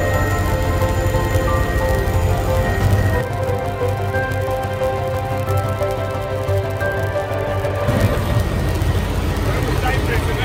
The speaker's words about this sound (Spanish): Bueno, vamos a ver qué se siente volar. Siete minutos aquí en el helicóptero. ¡Wow!